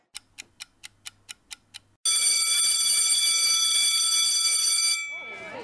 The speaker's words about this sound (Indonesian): Bel masuk pun berbunyi. Kemudian para siswa kembali masuk ke kelasnya masing-masing.